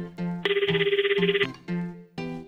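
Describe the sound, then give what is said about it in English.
A phone ringtone for an incoming call plays a bright melodic tune with a rapid trilling burst in the middle, loud, with no voices over it. “Ken is calling now, seemingly in a hurry.”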